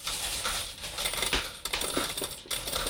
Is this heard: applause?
no